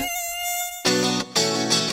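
A thin, high-pitched mosquito whine hums steadily, then swells into two louder buzzing bursts as if the insect flies past the ear. No voices are heard.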